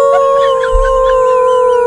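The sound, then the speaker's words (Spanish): A voice imitates a dog howling: one long, steady, loud wail held without break for about two seconds, with a brief low thump partway through and no other talk. “perros estaban como una, exactamente, como una película de misterio, país.”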